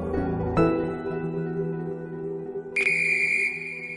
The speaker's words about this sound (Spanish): Es el pitazo final.